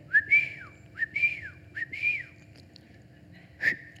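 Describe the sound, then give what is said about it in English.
A person whistles a repeated signal call, a father's whistle meaning come home for dinner: three quick rising-and-falling phrases followed by one short chirp, moderately loud, with no talking. “My dad had this special whistle, which meant, and we could hear it no matter where we were, meant come running home for dinner.”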